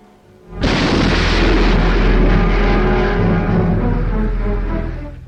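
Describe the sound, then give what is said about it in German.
An atomic bomb test explosion in the New Mexico desert in July 1945 bursts in suddenly after a brief quiet moment, then holds as a loud, continuous, deep rumbling roar that barely fades over several seconds. No voices. “Miles into the air rises the giant shape of the now historic explosion.”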